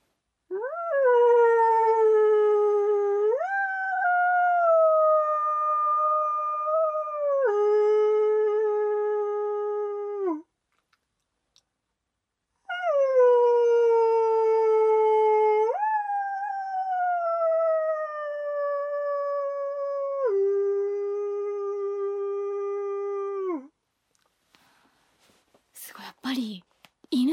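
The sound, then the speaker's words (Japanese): A person's voice imitates a wolf howl in two long, sustained calls, each rising then sliding down in steps, loud, separated by a short silence, with a brief breathy noise at the end. “遠吠えをしていただいても聞かせていただいてもいいですかもちろんいいですよ、はい、ちょっとやってみますねお願いします”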